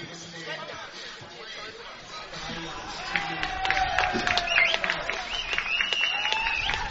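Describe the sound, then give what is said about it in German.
A stadium crowd at an American football game roars and cheers mockingly on third and three, after Hurricanes number 73 picked up the ball thinking it was a fumble. A steady wash of noise swells midway with sharp whistles and shouts rising above the din. “Dritter Versuch und drei und der Jubel hier im Publikum, der gilt, glaube ich, höhnisch.”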